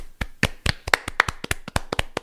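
A short burst of hand clapping applause, about a dozen sharp claps in a quick, slightly uneven rhythm, like one or two people clapping. No voices.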